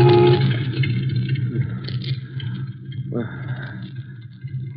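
A car horn blares in a long, loud, unbroken tone as a man's slumped head strikes the horn on the steering wheel, over the steady low rumble of the car's idling engine, with a higher droning note joining partway through.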